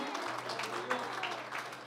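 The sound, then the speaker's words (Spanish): A church audience claps steadily in praise to the Lord, dense overlapping applause sustained at an even loudness for the whole stretch, with a low steady hum running underneath. “Que sea más fuerte ese aplauso de alabanza.”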